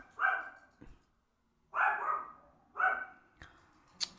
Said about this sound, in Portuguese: Caralho de cachorro.